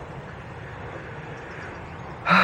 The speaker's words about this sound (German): Hier sind übrigens laute Geräusche, das ist, hier wird was abgerissen, so eine riesengroße alte Fabrik. Die wird abgerissen. Und das hört man jetzt seit Wochen, Monaten eigentlich schon über der Stadt.